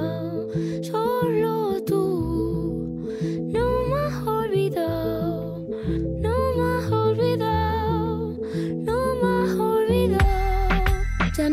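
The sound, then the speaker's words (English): An instrumental stretch of track two from a pop album plays steadily and loudly, with a pulsing bass line under bright, melodic synth-like lines and chiming accents; no voices are heard. “So I'm going to play oh, a great. bit of a track uh, from track two.”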